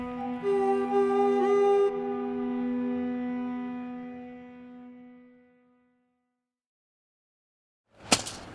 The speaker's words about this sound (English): Hear that? It's the sound of someone whacking the ground with a rake. Specifically, they're beating around the bush,